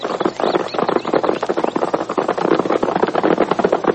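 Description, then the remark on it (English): Rapid, rhythmic hoofbeats of the Lone Ranger and Tonto's horses riding at a gallop into the valley, a steady drumming that stays fairly loud throughout, with no voices. “Heading for the distant hills, heading for new worlds, as the Lone Ranger and Tonto rode into the valley.”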